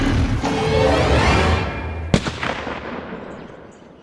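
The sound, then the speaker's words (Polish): A single gunshot, fired at a crocodile, cracks sharply partway through, after a rushing, rumbling build-up, then quickly echoes away and fades into near silence. No one speaks. “Harry zabezpieczył broń. Strzał był celny, ale to nie koniec pracy.”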